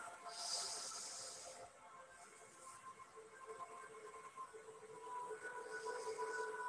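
A slow, deep breath drawn in and then let out, soft and airy, over a quiet sustained musical drone.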